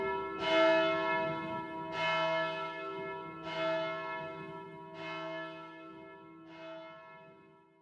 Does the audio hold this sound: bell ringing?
yes